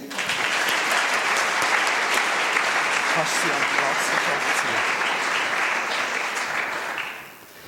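A room full of people claps steadily for about seven seconds, a dense, even wash of applause that fades out quickly at the end.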